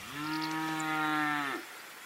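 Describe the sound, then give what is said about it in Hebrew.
A large, lean Damascus cow with a long neck and long horns lets out one long, steady moo, loud, holding an even pitch for over a second before cutting off, leaving only faint background noise. “לפני שנולד דניאל, כשאליעזר ליברסון עוד היה רווק, הייתה לו פרה דמסקאית גדולה, צנומה, ארוכת צוואר וקרניים.”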